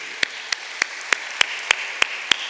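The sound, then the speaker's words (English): An audience applauds a group of American Rhodes Scholars going to Oxford: a steady, hissy wash of clapping with one set of crisp, evenly spaced claps standing out roughly three times a second. No one speaks. “I'd like everybody to give this group a round of applause.”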